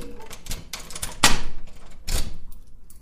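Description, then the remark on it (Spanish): Metallic scraping and clicking as a key slides into the lock of a house door just closed on leaving, with a sharp click about midway and a second rattling scrape near the end, no voices. “Cierro la puerta, Introduzco la llave.”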